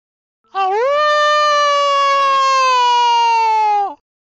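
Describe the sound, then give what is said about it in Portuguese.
A single drawn-out howl from a human voice imitating a wolf, rising at the start and then sliding slowly downward for about three seconds before cutting off. It is loud and stands alone without other talking. “Meu Deus, que lobo é esse?”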